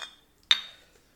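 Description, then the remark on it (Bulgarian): A single sharp clink of glasses touching in a toast, bright, its high ringing tone fading over a fraction of a second in an otherwise quiet moment. “By the way, на здраве, guys.”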